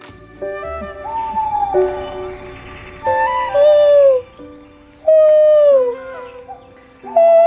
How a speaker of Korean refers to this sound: 부엉이 목소리가 아주 맑습니다. 그 성악한 부엉인가요? 고음이 잘 나옵니다.